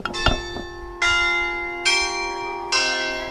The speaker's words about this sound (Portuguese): O toque do sino da Igreja do Rosário, em São Vicente, escuta-se na centenária mercearia.